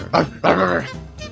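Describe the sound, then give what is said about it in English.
A person's voice imitates a dog, giving two loud barking yelps in quick succession, the second longer and more drawn out, then trailing off. “I'm, I'm making barking noises.”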